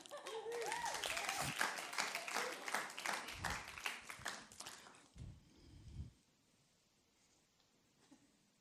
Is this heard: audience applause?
yes